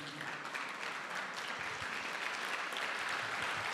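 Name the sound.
audience applauding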